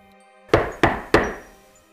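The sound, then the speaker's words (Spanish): Three heavy, booming thuds strike the wooden living-room door in quick, even succession at one in the morning, each blow loud with a short resonant decay, as if someone were trying to tear it off its hinges, with no voices. “Sin duda alguien quería arrancarla de las bisagras.”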